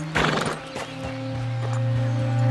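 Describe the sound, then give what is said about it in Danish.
A horse lets out a loud, shaky whinny near the start, then a few hoof clops follow over a steady low hum, with no one talking. “Imens han har kæmpet med slangehallucinationer under vandet, har hesten holdt en støt og stedig kurs og bragte dem hele skinnet ind til bredden.”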